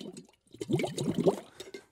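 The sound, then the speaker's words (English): Bubbling gurgles of air blown through water in a bong, a steady burble lasting over a second after a brief soft lead-in, with no talking. “You can't blow bubbles.”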